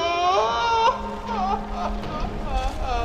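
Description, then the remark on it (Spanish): A person cries and sobs in loud, wavering, wailing bursts, with shaky pitched whimpers trailing off between them over a steady low rumbling drone. “No, no llores.”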